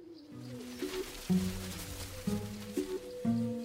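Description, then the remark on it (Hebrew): Low, soft pigeon coos repeat in a steady rhythm, several overlapping phrases, each a throaty rolling murmur rising and falling, with no talking. “הוא הופך להיות חבר של כל היונאים בלונדון ובדרום אנגליה, ומקבל מהם דוגמאות של כל מיני זנים מיוחדים של יונים עם כל מיני תכונות מיוחדות”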